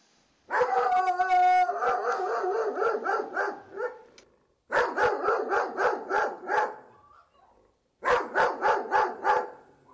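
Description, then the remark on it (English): A neighbor's medium to large Doberman barks and howls in three loud bursts, long drawn-out howls breaking into rapid rhythmic barks, with short pauses between; another dog that lives there can also faintly be heard. Clear, no talking. “I'll just gonna give you a sample of um, of the dog from next door.”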